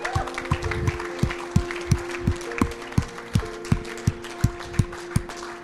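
An audience claps together in a steady, even rhythm, about three sharp claps per second, over a sustained low tonal drone, with no voices, applauding a person who raised their hand to accept this gift for the first time.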